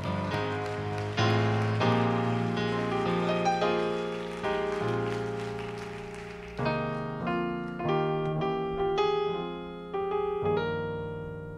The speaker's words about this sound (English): And so, without any further delay, one more time, let's give that hand clap to the Lord in thanks and appreciation for the man of God.